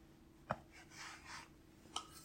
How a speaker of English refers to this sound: With a pastry blender until it resembles crumbs. Uh, you can do it with uh, a fork, your fingertips if they're cool. Either one works. And we're just going to cut in that butter.